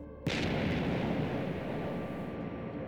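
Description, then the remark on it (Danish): A sudden burst of heavy machine-gun fire from Russian warplanes and German anti-aircraft guns erupts over the town of Nexø on Bornholm at midday on 7 May, settling into a dense, sustained roar of shooting and rumbling blasts, loud and continuous with no voices. “maj, da lyden af maskingevær fra de russiske krigsfly og det tyske antiluftskyts skærer gennem Næksø”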